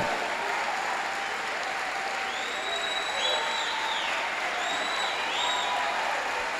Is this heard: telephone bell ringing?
no